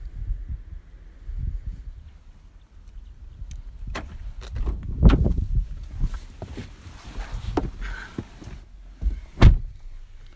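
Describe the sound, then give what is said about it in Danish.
Shuffling and bumping of someone climbing into their car in front of a house, with a few dull thuds, then a single solid car door slam near the end. No talking. “Jeg er lige øh, gået ind i min bil, for jeg synes ikke, jeg vil stå lige uden foran deres hus og, og snakke.”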